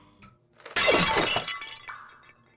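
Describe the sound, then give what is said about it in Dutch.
Glass is deliberately smashed in one loud, sudden crash, followed by a brief scatter of falling shards and tinkling fragments that quickly fade out. No voices are heard. “Sla die deels kapot.”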